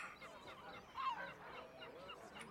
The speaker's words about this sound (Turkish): Havada martı sesleri. Osmanlı İstanbul'unda hareketli bir sabah.